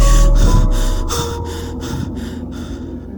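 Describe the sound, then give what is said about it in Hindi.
Quick, panicked breathing: a run of about seven sharp, breathy gasps in steady rhythm, fairly loud over a low background hum, tapering off at the end. No one speaks. “रोहित एकदम से डर गया उसकी सांसें एकदम तेज हो गई”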